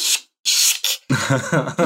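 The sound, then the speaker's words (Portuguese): A wet cloth is twisted and wrung in three loud, hissing, rasping bursts with short pauses between, followed by someone talking while the squeezing continues underneath. “Peraí, deixa eu terminar de torcer aqui o pano.”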